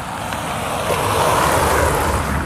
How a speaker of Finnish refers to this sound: Pitäisikö me mennä tosta, niin ei enää autot tässä sit rahise. Joo, autot rahisee.